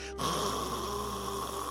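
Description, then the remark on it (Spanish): A person imitates snoring with one drawn-out, rasping breath, loud, lasting a couple of seconds with no other sounds around it. “Entonces está así, por eso la gente ronca así, mira.”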